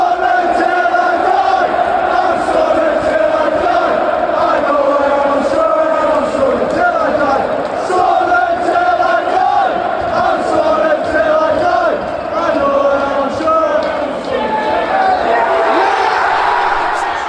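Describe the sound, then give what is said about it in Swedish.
Sunderland football supporters chant loudly and continuously in a stadium, celebrating the club's return to the Championship after four years in League One, a dense crowd of voices singing together in a rhythmic, sustained roar that holds steady for the whole stretch. “Och efter att de nu är över så firar vi väl det här tillsammans med The Black Hats genom att lyssna på supportrarna som var på plats.”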